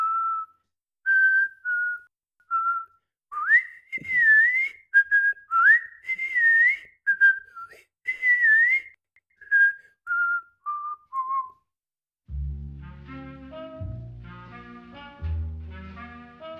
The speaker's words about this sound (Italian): Quando l'uomo arrivò al pianerottolo e imboccò la seconda rampa di scale, cominciò a fischiettare sommessamente. Il motivo che fischiettava era tre topolini ciechi.